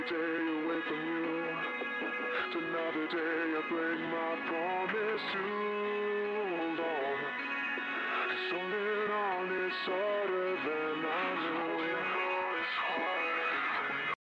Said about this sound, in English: We should slow this down a little bit. Uh let's do time and pitch. Ooh, pitch shifter. Let's move this down by this.